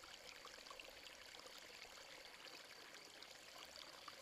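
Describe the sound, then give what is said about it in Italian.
A gently flowing stream burbles and rushes steadily, a continuous soft wash of water with fine trickling detail, even in level, with no voices. “Il suo scorrere ha un leggero fruscio, un rumore, un suono che mi rilassa ulteriormente.”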